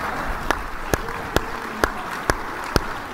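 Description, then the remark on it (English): Slow, evenly spaced clapping for the mayor of Dallas: seven sharp claps land roughly twice a second over a steady low hiss, with no voices. “Give a big round of applause for the mayor of Dallas.”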